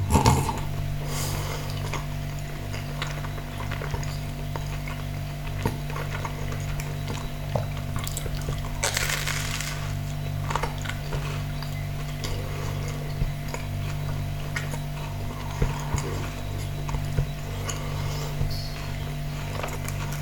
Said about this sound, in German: Hintergrund wieder der Kühlschrank.